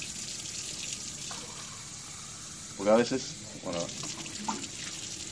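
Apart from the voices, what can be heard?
water running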